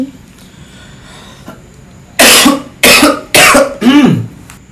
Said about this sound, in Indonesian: Aduh. Aduh, maaf ya gue lagi batuk nih, lagi lagi positif.